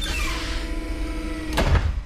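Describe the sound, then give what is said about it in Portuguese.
A medical center's sliding door rumbles shut over steady machine hum, ending in a sharp, loud mechanical clunk as the lock latches. “Vocês escutam o barulho da trava do centro médico da porta fechando.”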